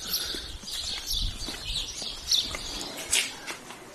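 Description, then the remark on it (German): Busy birdsong outdoors during the 'Lübsche Verführung' tour, many small birds chirping and tweeting at once in bright, overlapping bursts, with faint low rumbling and scattered knocking sounds beneath, no one speaking. “Hört ihr die Vögel? Das ist ja unglaublich.”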